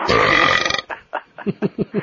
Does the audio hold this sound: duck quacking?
no